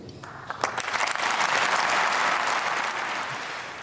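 An audience bursts into sustained applause for 91-year-old Eva Sepeschi after her speech, dense clapping that swells within the first second and holds steady and loud, a broad crackling wash of many hands with no voices standing out.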